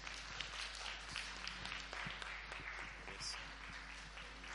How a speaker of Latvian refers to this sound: Un ar aplausiem mēs viņus pavadām.